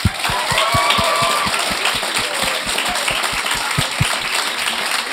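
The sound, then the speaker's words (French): An audience welcoming talk show guests Coco bellivo and Maud Landry applauds steadily, a dense wash of clapping with a rhythmic low thump running through it, sustained at an even, fairly loud level for several seconds with no voices. “Mesdames et messieurs, donner une bonne main d'applaudissements à Coco bellivo et Maud Landry.”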